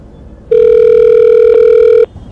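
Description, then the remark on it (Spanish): A single loud, steady telephone ringing tone of an outgoing phone call sounds for about a second and a half. It is a flat electronic buzz-hum, with faint background noise before and after and no voices. “voy a llamar a Sandy para que venga a buscarme cuando Chiqui termine de arreglarme.”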